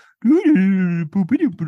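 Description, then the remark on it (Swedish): A voice imitates eerie, off-key fiddle music like that played in film scenes: a nasal note slides upward, holds steadily, then breaks into a few wobbly, wavering short notes, solo. “spelar de liksom musik som ska anta låter obehaglig och konstig och märklig. Eh, lite läskig. Eh, alltså är det som att de bara spelat dåligt fiol typ”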